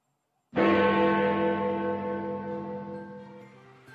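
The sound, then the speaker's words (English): A single deep strike of a large clock tower bell, ringing out loud and rich, then humming with a long, slowly fading resonance. No voices are heard. “So, but in the background, I can hear, I, I can hear the sound of the chiming of it sounds like Big Ben Kenobi, mate.”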